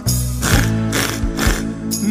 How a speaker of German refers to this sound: Das macht die Säge.